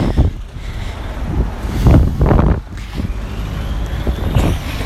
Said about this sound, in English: Sorry about the cars, guys. I'm, I'm on the street.